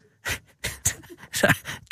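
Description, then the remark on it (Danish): Breathy panting and growling from a small French bulldog comes in about five rough, snorting bursts, with a brief human laugh and a spoken word mixed in. “he's a French bulldog. Ah, that's why he's making these sounds. Yes, that's right. He's growling.”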